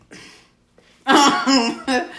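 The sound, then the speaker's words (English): A single short, breathy cough from a man, right in front of another person's face, comes first, followed after a brief pause by louder bursts of laughter and voiced chatter. “I'm laughing because he coughed in front of my face, y'all.”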